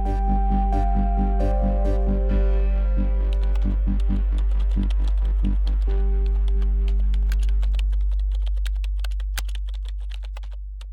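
Rapid, irregular clicking of computer keyboard keys as the name Vilma Montesi is typed into an internet search, growing busier toward the end, over a steady low hum and some faint tonal notes early on. No one speaks.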